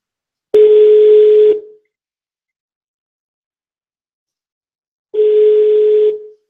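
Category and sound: signal or alarm, telephone call ringing unanswered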